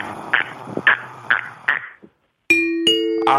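A two-note ding-dong chime, only two notes struck rather than a full ding-dong-dang, rings out loud, each tone sustaining and ringing on. It follows a short run of rhythmic raspy bursts, an imitation of a narrow-mouthed toad's call, and a brief silence.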